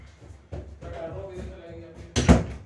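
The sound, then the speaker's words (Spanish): A kitchen door swings closed with one solid thud near the end, after a couple of seconds of muffled indoor background noise. “Me meto en la cocina, voy a cerrar la puerta.”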